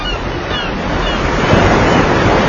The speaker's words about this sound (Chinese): 大海